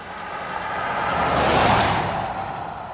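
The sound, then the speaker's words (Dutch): A car drives by on the way to the harbour of Den Oever, with a steady, broad rush of road and engine noise that swells toward the middle and eases off again, moderately loud, with no voices. “Dan gaan we een stukje met de auto naar de haven van Den Oever en lopen we vervolgens via de sluizen de bouwplaats op.”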